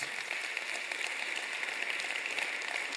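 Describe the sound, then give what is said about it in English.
A steady wash of clapping from a church audience, dense and continuous with no single claps standing out, at moderate volume, applauding a visiting family invited to church. “But yeah, give them a round of applause.”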